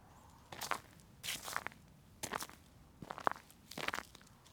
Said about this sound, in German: Es knirscht unter mir. Da liegt wohl Schnee.